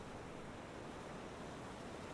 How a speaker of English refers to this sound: Waves are coming in at the beginner level right now.